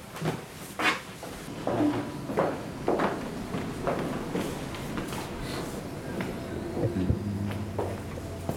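Steady footsteps of people walking through an echoing building to the 25th floor, each step a sharp, hard-soled tap in a regular rhythm, with faint background murmur and a low hum near the end.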